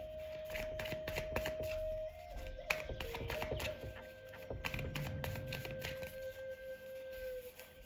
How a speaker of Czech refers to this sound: A já už se dívám na vaši fotku, míchám u toho karty a my se spolu podíváme, jaká bude energie v tomto partnerském vztahu.